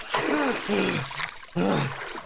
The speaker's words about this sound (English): and you just hear the sloshing of water.